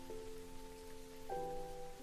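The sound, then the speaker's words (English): Steady rain patters on cobblestone streets in a continuous, even wash of noise, fairly soft, with a few sustained low musical tones holding underneath and shifting once partway through. “But gradually, the sound of the rain grows and grows.”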